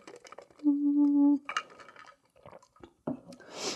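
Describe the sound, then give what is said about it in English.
A few faint sips and small glass clinks, with a short hummed tone in the middle and brief breathy noises, as a speaker takes a sip of water between words. “Um right, I'm going to take a sip of water.”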